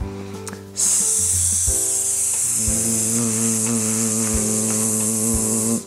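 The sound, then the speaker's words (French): In a vocal exercise, a voice produces a steady, sustained hissing "sss" sound that starts abruptly and holds evenly loud for several seconds, with a low voiced hum or tone added underneath partway through. “Alors regardez, je démarre toujours par le S.”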